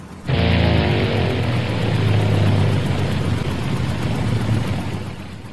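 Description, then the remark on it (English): A small aircraft's engine roars steadily and loudly, a constant droning hum with a low throbbing tone that holds for several seconds and eases slightly at the end, after a cap is sucked into the engine. No one speaks. “My cap flew off and it was sucked into the engine.”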